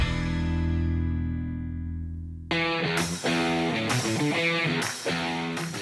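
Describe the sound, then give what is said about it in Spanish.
A music break on the radio show Autología Radio, with no talking: a sustained low chord rings out and fades, then a loud, full band with bright, driving rhythm abruptly kicks in partway through. “Nosotros vamos a ir a música y regresamos para platicar con Alfonso Chiquini, director de marketing, publicidad, relaciones públicas de Volkswagen de México.”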